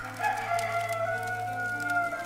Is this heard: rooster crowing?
yes